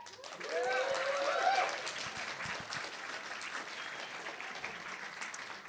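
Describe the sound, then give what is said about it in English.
A church audience applauds steadily for several seconds as a woman is called up to join the speaker. A dense wash of clapping swells early on, then holds at a constant level, with a brief vocal cheer near the start. “So the first person that's going to come and join me, and please give her a big round of applause,”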